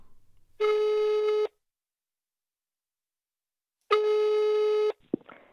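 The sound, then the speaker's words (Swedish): Two long, steady electronic tones of a telephone ringing signal on a call to someone at home in England in late March 2020, each about a second, separated by a pause, followed by a brief click as if the line is picked up. “Hon är hemma i England när jag ringer upp henne i slutet av mars 2020.”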